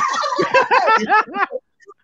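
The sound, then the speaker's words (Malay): A loud chorus of frogs croaking, a rapid run of overlapping, bouncy calls for about a second and a half before breaking off into near silence. “duduk Kuala Lumpur lama tak dengar bunyi katak ni.”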